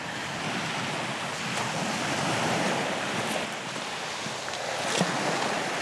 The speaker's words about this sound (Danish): Og vi kommer ned til stranden, og jeg kan høre lyden af bølgerne. Kan du også høre den? Ja. Ej, det er sådan en dejlig lyd. Skal vi ikke lige lade den stå et øjeblik?